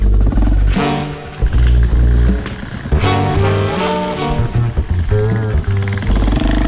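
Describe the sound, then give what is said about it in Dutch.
A motorcycle engine drones loudly and steadily throughout, its pitch stepping up and down as the rider shifts and accelerates, with no voices. “Terug op de motor.”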